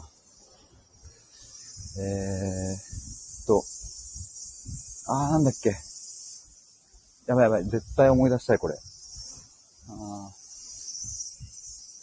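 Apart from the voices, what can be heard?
cicadas chirping outdoors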